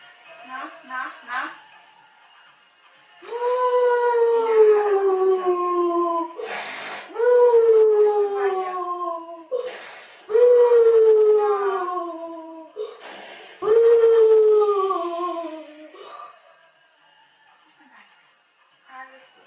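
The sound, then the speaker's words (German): Strained, howl-like vocalizations during a grand mal seizure: a few short cries, then four long, loud wails that slide downward in pitch, separated by brief rustling pauses. “ja, wie gesagt, ähm, so hörte sich das an und es vermittelt vielleicht einen Eindruck davon, wie ja, hilflos wir in dieser Situation war”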